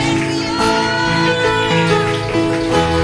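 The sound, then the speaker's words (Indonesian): An audience applauds for the Lord Jesus in a steady, dense patter of clapping that holds for the whole few seconds, layered over sustained keyboard chords and no speech. “Hubunganku penuh keajaiban tepuk tangan bagi Tuhan Yesus.”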